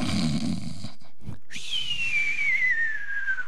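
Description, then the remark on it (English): A voice mimics a rumbling snore, pauses briefly, then gives a long, sliding whistle that falls slowly in pitch. The imitation is clear, with no talking. “He's just back there snoring and whistling.”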